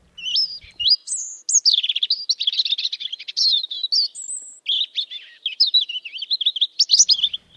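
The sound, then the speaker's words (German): A European robin sings a long, varied, high-pitched song of rapid warbling phrases, thin trills and clear whistled notes, fairly loud, with no talking. “Äh, vor allen Dingen dieser Tage, in der Morgendämmerung zum Beispiel, da singt es recht lautstark.”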